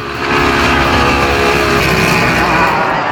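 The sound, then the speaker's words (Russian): The powerful motor of a Formula 1 water racing powerboat, a planing catamaran under 5 metres long with a composite hull weighing about 400 kg, roars steadily and loudly with a dense, harmonic buzzing drone, holding nearly constant pitch throughout with no voices present. “Мощнейший мотор разгоняет спортивный снаряд до 100 км в час менее чем за 3 секунды.”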